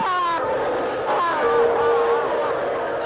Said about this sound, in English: footage of the funeral shows thousands and thousands of people crying, wailing even. As they rock back and forth on the ground, screaming in anguish for Kim Il sung.